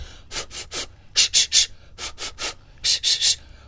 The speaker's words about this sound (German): Und dann fordere ich alle immer auf, nicht dann so, äh, so ganz doll Luft zu holen, sondern wir üben dann auch über Zwerchfellübungen ähm, das sogenannte reflektorische Atmen. Also Zwerchfellübungen sind zum Beispiel mit Explosivlauten